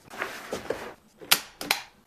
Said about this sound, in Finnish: Sitten niin, tota, naulapyssyllä tuohon tulee toi paneeli sitten kiinnitetään siihen päälle.